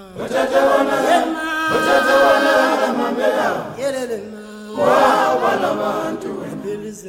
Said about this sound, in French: Et là, ce que vous entendez, c'est un chant d'exilé, un chant de regret d'un mineur qui a laissé sa femme derrière lui.